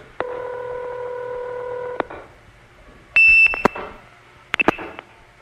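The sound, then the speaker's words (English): A loud, steady, high-pitched trunk-reset tone sounds for about half a second, followed by line clicks and brief chirps, after an earlier droning call-progress tone. No one speaks. “What's important is that this call has gone over a trunk from New York to a distant 4A, which can be reset by 2600.”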